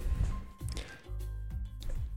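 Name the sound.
cork being pulled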